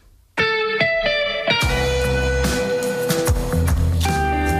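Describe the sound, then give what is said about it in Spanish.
A distorted electric guitar opens with a few ringing chords, then a full rock band crashes in with drums and bass, loud and dense, playing a driving rock passage with no vocals; a track from the band's new album. “Sus guitarras pronto protagonistas en Pamplona, en la sala central donde han anunciado disco el mayo para presentar este nuevo álbum con el que les dejamos.”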